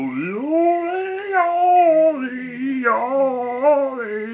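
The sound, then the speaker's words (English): A voice imitates a hyena howling, loud and continuous, with long wavering pitch glides rising and falling for about four seconds, with no other sounds. “he stood up at last and said, Listen to me sing, I am better than all of you. He sang at the top of his voice.”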